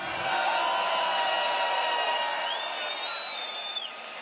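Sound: festival crowd cheering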